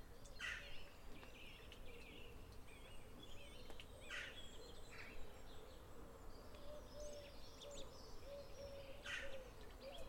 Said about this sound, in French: Les oiseaux chantent de concert, en vol brusque de pigeons, restés picorés sur le chemin.